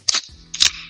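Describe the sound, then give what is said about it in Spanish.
A beer being opened: two sharp cracks about half a second apart, each followed by a brief bright hiss, with no talking over them. “Sí, sí, voy a aprovechar y este me voy a, con tu permiso, ¿eh? Abrir una chelita, güey.”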